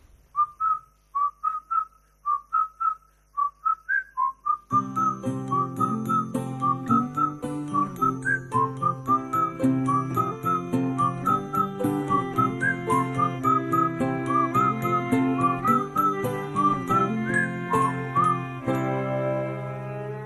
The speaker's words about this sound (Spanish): vamos a escuchar una pues con una simpática canción que nos habla de amor y de amistad también, muy apropiada para el tema que estamos hablando hoy.